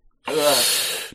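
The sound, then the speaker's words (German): A single sneeze bursts out loud and breathy: a brief voiced onset gives way to a sustained hissing rush of air lasting under a second, with no talking around it. “Hast du dir selbst gerade Gesundheit gewünscht?”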